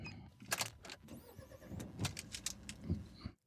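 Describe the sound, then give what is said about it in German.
The engine of a booked car-sharing car starts, with a few sharp mechanical clicks and whirring bursts, a brief electronic tone, then a steady low rumble. No one speaks. “Und dann starten wir mal und schauen mal, was der Tank sagt.”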